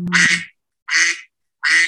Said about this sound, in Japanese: 爆音。すごい。あ、びっくりした。アヒル爆音。元気。あの、前回のエピソード3よりもアヒルが元気になりましたね。